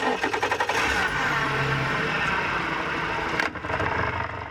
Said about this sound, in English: a water quality scientist, guns the motor on the small boat and putters into waters the color of a new spring leaf.